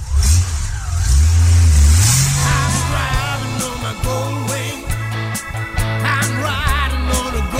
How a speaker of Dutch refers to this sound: En aan het begin van het nummer hoor je de Goldwing starten. Ja, dat is het mooiste geluid wat er is.